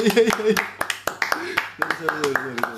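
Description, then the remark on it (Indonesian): A steady run of crisp hand claps, roughly three or four per second, welcoming a guest, while voices talk and laugh over them. “mana tepuk tangannya oh iya iya iya, iya.”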